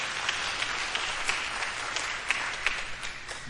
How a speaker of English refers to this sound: Anybody with me? That's what the, you, you can clap for God.